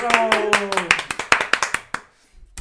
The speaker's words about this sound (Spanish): Aplausos,